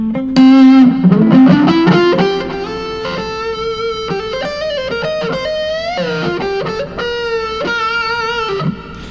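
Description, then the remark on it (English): An electric guitar played through a Burnley distortion pedal plays a sustained, saturated riff alone, with thick fuzzy harmonics, bending notes and a loud, steady attack throughout, no voices present. “And the Burnley.”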